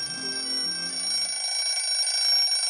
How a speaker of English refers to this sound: Jim has set the alarm a little early this morning so that he can get up and do his exercises before Muriel awakens. So, at the sound of the alarm, the bedclothes are thrown back, the bed springs creak, the alarm is shut off